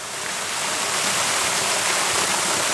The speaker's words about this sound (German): Oh, das ist ein riesiger Felsvorsprung, der so unten reingeht, eigentlich wie so eine ganz langgezogene Höhle. Links und rechts hat es einen Wasserfall.